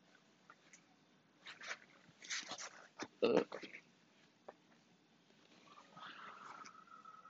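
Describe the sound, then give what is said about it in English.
A dog makes irregular snuffling, chewing-like noises in short bursts, with one sharper, louder burst midway and a thin whining tone toward the end. “Ugh, this dog.”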